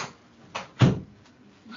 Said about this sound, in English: one second i get like my kitty is in here and she is begging to be let out of the room one second i gotta like open the door there you go baby go on